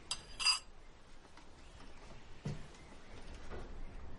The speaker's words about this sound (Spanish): Marina aleja la cuchara y la taza.